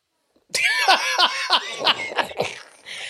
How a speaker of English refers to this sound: Because they about to make me start coughing again, y'all.